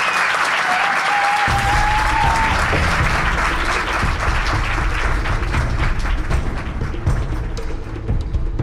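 An audience bursts into sustained applause, a dense, steady wash of many hands clapping that holds at full strength for several seconds before thinning slightly toward the end. A brief whistle rises early on.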